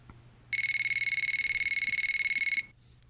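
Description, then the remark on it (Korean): A telephone rings in one continuous electronic trill lasting about two seconds, a rapid pulsing buzz of stacked high tones that starts and stops abruptly, with no voices. “전 자포자기한 마음으로 지내고 있었는데, 그러던 중 그 사람에게 전화가 왔습니다.”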